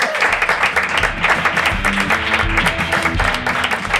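An audience applauds steadily, a dense, loud wash of many hands clapping with no pauses, with some low murmuring or tonal sound faintly underneath.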